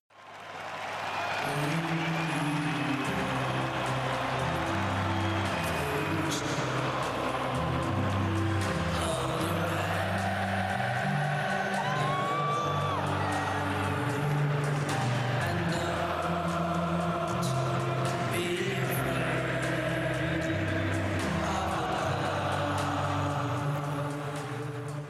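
Football fans singing together in a stadium, a huge crowd chanting a stepping, repetitive melody in unison. The sound is loud and continuous throughout, with crowd roar underneath.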